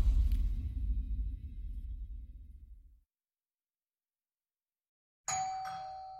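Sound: doorbell ringing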